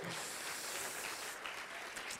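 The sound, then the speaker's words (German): A crowd applauding steadily, a dense crackle of many hands clapping at an even, fairly loud level throughout, with no voices standing out. “Applaus”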